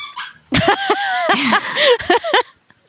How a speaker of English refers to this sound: Oh, sorry, this dog, y'all. Seriously.